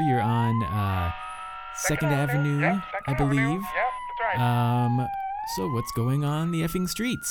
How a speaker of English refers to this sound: Well, if you can hear the sirens in the background, that's because there's smoke coming from uh-huh. smoke coming from the the effing bakery.